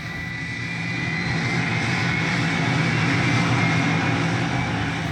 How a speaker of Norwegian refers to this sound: Vi lasta om bord på gamle sovjetiske fly, egentlig. Eh, IL-76, som nå var ukrainske flygere. Vi satt i lasterommet med Kjøretøyene, våpen, ammunisjon, alt var klart.